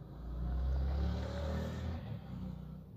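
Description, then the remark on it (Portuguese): A motorcycle engine roars as a man rides past again, its throaty rumble swelling and then easing slightly as the bike passes, loud and steady throughout with no one talking. “Ah, o cara vai passar de novo aqui, de moto.”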